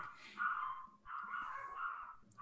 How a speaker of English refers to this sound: It's All right, I'm so sorry. My little dogs are barking.